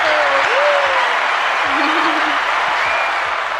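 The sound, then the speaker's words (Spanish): Sustained welcome applause, a dense, steady wash of clapping from a group that stays loud for the whole few seconds, with faint tonal sounds drifting underneath. “porque al Gustavo no le dimos su aplauso de bienvenida.”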